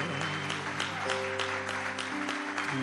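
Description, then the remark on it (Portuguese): A church audience claps for Jesus after a prayer, a dense wash of many hands applauding together at a fairly loud level, with sustained organ or keyboard tones humming underneath throughout. “Você pode aplaudir a Jesus, irmão, com essa palavra.”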